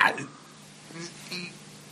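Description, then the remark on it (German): A short burst of noise, then a couple of low, croaky burps about a second apart, moderately loud, after drinking a fizzy beer. “Mega am Aufstoßen.”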